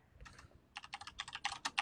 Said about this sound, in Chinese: 别别老是打字了，开始了，下一轮开始了都。